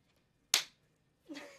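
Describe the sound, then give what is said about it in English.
A single sharp slap of a person's hand against their own bare buttocks rings out, followed a moment later by a softer, smeared rustling sound. No one speaks. “Slap your butt.”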